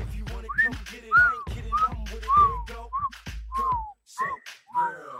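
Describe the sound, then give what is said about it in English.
Someone whistles a short, bouncy melody imitating a song played from car subwoofers, with a quick run of sliding notes, over a low rumbling hum that drops away near the end. “and these kids, like their parents, just bought them these insane cars, and they'd just be driving with their subwoofers. You just hear like,”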